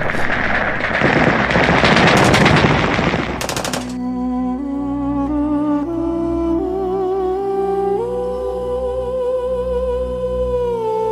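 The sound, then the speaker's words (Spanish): A dense, loud volley of rapid gunfire crackles for several seconds as comrades intensify an attack, then cuts off abruptly and gives way to slow, sustained music with rising tones. No one speaks. “Ernesto se puso de pie, justo en el momento en que nuestros compañeros redoblaban el ataque. Varias balas lo alcanzaron”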